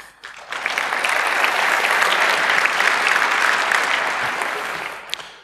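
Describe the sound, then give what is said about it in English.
An audience breaks into steady applause for Siemens for fixing security vulnerabilities. Dense clapping rises quickly and holds at an even level for about five seconds before tapering off, with no talking over it. “So I think Siemens deserves a round of applause for getting these fixed.”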